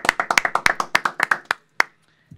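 A short burst of applause marking a radio show's anniversary: rapid, sharp claps from a few people that thin out and stop within about a second and a half, followed by a final lone clap.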